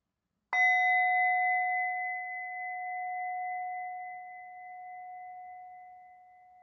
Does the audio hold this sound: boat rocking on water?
no